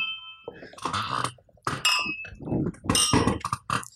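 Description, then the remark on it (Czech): Glasses of Pinot Noir clink together in a toast, a couple of bright ringing chimes that linger briefly, amid bursts of voices and table noise. “Tak na zdraví.”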